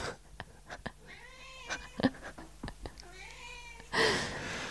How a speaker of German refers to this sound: Hier bewirbt sich unsere Katze gerade auch um einen Platz